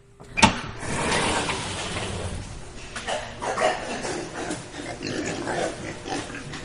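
A pig farm where Badoley raises 5,000 pigs, with a sharp squeal near the start followed by a continuous jumble of grunts and squeals from many pigs, steady throughout, with no one talking.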